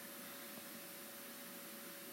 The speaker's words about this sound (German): Das ist der Staubsauger im Hintergrund. Cool, Staubsauger im Hintergrund.